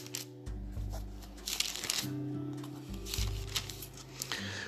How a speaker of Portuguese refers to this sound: Deixa eu deixar você ouvir o som das páginas passando. Eu amo esse barulho das páginas bíblicas saltando como vida.